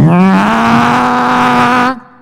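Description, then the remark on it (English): A person vocally imitates the engine of a small airplane, such as a Piper or a Cessna, revving on the runway: a buzzing, droning hum that climbs in pitch, then holds steady and loud for about two seconds before cutting off abruptly. “And you get up in the, and on the runway, and all of a sudden you hear that engine,”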